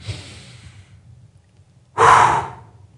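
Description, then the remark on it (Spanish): A soft inhale followed by a sudden, forceful exhale pushed out hard and loud as part of a breathing exercise, then quiet. One strong exhale, no talking. “Otra respiración que enseño y que uso mucho es, es así.”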